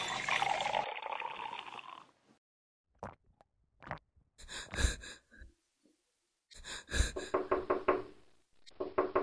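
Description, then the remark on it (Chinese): Loud, rapid knocking on a door comes in two bursts, a short cluster of sharp raps followed after a pause by a longer run of repeated knocks. A breathy rush precedes them, with no talking. “你给我开开门。”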